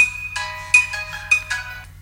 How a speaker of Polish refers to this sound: I w przypadku kalendarza o właśnie, dzień dobry. Mamy nasz alarm.